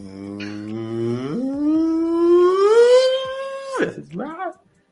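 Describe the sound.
A voice imitates the THX cinema intro, a sustained tone that glides slowly upward and swells louder, holds near the top, then breaks off with a short wavering vocal trail.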